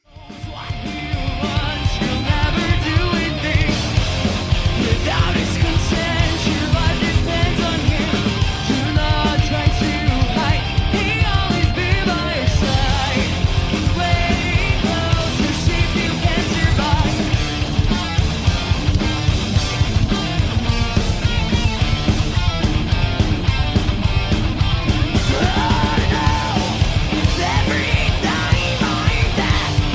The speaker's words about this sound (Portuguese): que é a banda de black metal pagão de Brasília, é, já está na etapa de gravação dos vocais do material novo.